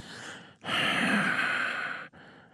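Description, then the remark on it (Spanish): A voice imitates the menacing huffing snort of a killer: one long, loud, breathy exhale from about 0.6 to 2.1 seconds, framed by softer breaths before and after, with no talking. “usted ya se dio cuenta que yo soy el asesino porque estoy bufando”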